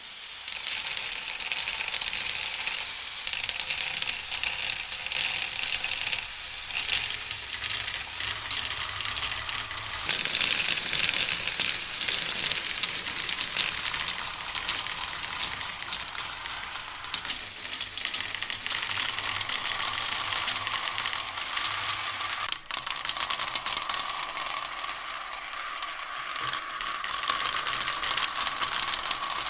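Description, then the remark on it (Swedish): Glass and stone marbles roll and clatter steadily down a wooden track for half a minute, a dense, continuous rattling with occasional sharper clicks and no voices. “Du kommer höra nu när jag spelar det här ljudet med glaskulor och eh, stenkulor som åker.”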